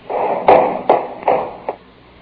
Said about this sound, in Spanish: Espera, voy a echar la llave.